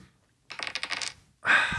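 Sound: dice roll sound effect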